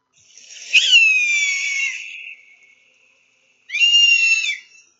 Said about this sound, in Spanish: volvió a oír ese fuerte sonido del águila que volaba por encima y sintió escalofríos.